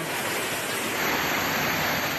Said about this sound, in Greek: Οι δρόμοι μετατράπηκαν σε ορμητικού χυμάρου.